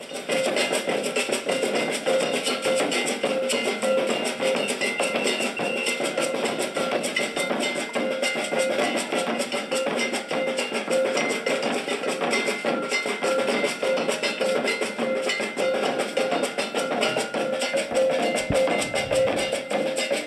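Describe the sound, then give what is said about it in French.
Lively improvised street music by a Maracatu group on a city square with trees in Salvador de Bahia, with many tourists listening: a dense, steady wash of percussion with a bright, clanking cowbell-like beat, loud and continuous throughout, with no clear voices. “Euh, oh, sur une place avec des arbres et beaucoup de touristes qui écoutent cette musique tout à fait improvisée.”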